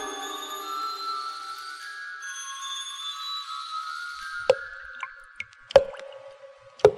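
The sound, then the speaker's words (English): A sustained eerie tonal drone fades out, then slow, irregular drops of blood plink loudly, about five drips with a short ringing resonance, and no voices; this is the start of the film Black Sunday. “The sound you hear is dripping blood.”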